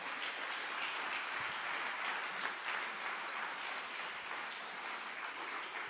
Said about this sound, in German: Gebt ihnen einen fetten Applaus.